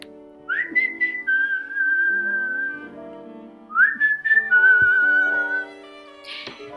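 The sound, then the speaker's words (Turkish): A clear whistle plays the famous opening motif of Beethoven's Fifth twice: three quick short notes dropping to a long held tone, over a soft sustained instrumental background. “Besteciyi ya da eserini duymamış olanların bile bu melodiyi ıslıkla çaldığı bilinmektedir.”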